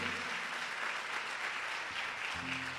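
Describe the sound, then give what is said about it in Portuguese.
An audience at a church service applauds Jesus, a dense continuous patter of many hands clapping at an even level throughout, with faint sustained tones underneath near the start and end. “Dê uma salva de palmas a Jesus.”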